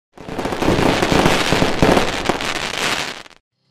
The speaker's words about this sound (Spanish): Ahí empiezan los fuegos artificiales.